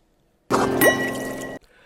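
White Burgundy wine pours into a glass: a steady, bright splashing stream lasting about a second, with a faint rising ring as the glass fills, then it stops abruptly.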